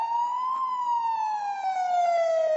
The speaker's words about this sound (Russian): Фух, вот сейчас э, мы уже слышим вот эти вот звуки. Это уже скорая помощь.